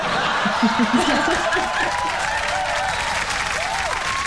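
Loud, sustained applause from a crowd, dense crackling claps with some cheering and laughter mixed in at the start, holding steady throughout.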